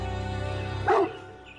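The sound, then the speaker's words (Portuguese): An angry dog growls low and steadily, coming ever closer as if about to attack, then lets out a single sharp, loud bark before the rumble trails off. “Tentavam manter a calma, mas era muito difícil porque o cachorro rosnava estava cada vez mais perto e quando estava a ponto de atacar”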